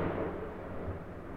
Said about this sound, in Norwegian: Hørte dere det? Det var nok et lyn som var 50 meter unna. Nå må jeg gå ut på balkongen her og sjekke, fordi at det der Det der var helt crazy, folkens.